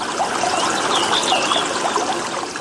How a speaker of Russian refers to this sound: Самый мощный и живописный – Джуджур. Расположен он в ущелье Хабхау на высоте почти в 500 метров над уровнем моря. Каждую секунду водопад низвергает, приготовьтесь, 270 литров воды. Вот уж напор так напор.